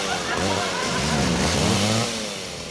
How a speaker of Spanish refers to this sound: ¡Bájame mi motosierra!